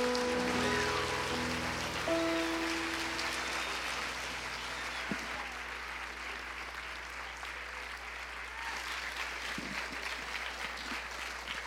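A church audience applauds Jesus, a dense, even patter of many hands clapping that holds for the whole stretch, with a few sustained tones lingering underneath at the start.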